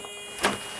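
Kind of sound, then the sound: household object, front door being opened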